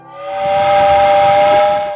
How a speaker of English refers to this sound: Well, it sounds like the train is pulling into the station just ahead.